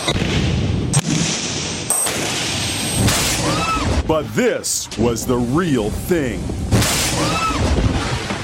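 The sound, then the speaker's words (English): Several sudden, sharp cracks of a man-made lightning strike of about 3 million volts burst out loudly, one after another, followed by a voice talking over the rumbling aftermath. “sounded like a bomb went off.”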